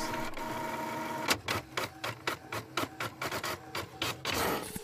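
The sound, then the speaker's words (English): A printer whirs and clatters as it prints reference images, its rapid rhythmic mechanical strokes repeating steadily as pages feed through, with no talking over it. “can you print me off some uh, reference images?”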